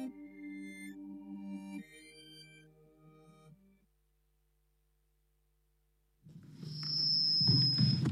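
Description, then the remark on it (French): A loud, piercing audio feedback squeal bursts in during a live broadcast after a stretch of silence, a sustained high-pitched whine ringing over a rumbling, noisy backdrop for about a second and a half. “Oh, le gros Larsen, il fait plaisir celui-là, ça faisait longtemps.”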